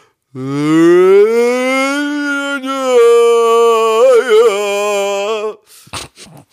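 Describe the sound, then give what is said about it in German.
A voice imitates a drunk neighbour bawling a song in a building stairwell: one loud, drawn-out wail, rising at first, then holding with a wavering warble for about five seconds before cutting off into brief rustling. “Und der, und der hat einfach wirklich stundenlang wie so ein Mulzin äh, im Hausflur gesungen und gegrölt.”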